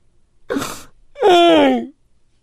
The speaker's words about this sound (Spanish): No, no llores más. Uh. ¿Quién llora en una estación de radio? Estás llorando.